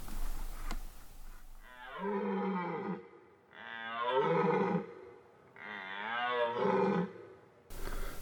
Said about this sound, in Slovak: A toto je revanie jelenia.